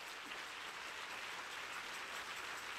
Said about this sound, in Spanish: Y si usted va a darle al Señor un aplauso, hágalo mejor.